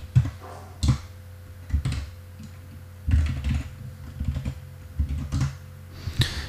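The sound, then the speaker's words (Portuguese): Computer keyboard keys clack in irregular bursts, a few taps at a time with short pauses between, fairly distinct over a low, steady background hum, as someone types a command to edit the GRUB configuration file with sudo nano. “Ops, deixa eu tirar isso aqui do meu teclado.”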